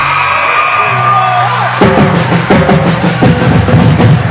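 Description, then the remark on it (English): A steady droning tone holds for about two seconds, then a student section at a home basketball game erupts into loud, sustained cheering as the Red Devils finish a 71-56 win, with whoops and yells rising out of the roaring crowd. “Blitz will walk against half court as you can hear the student section cheer.”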